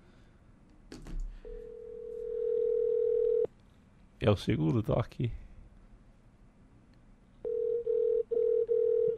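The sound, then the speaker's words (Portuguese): A telephone ringback tone sounds while a call is placed: one long steady beep, a short burst of speech, then the tone returns in clipped repeating pulses, clear and fairly loud. “ouvem o toque apenas.”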